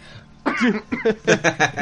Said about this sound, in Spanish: ya me río como tío, me río y me da tos.